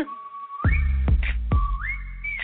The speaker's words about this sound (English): timeouts and between points a little music in the background. And you may have heard oh. this annoying whistle, a little whistle going on back there.